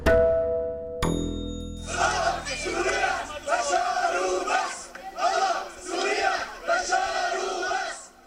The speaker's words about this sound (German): Bewohner eines Stadtteils von Aleppo bejubeln die Soldaten des Regimes. Gott, Syrien, Bashar und sonst nichts, rufen sie.